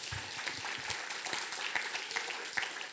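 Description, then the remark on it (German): Steady applause from a crowd, a dense wash of many hands clapping at an even level throughout, with a few sharper individual claps standing out. “Applaus”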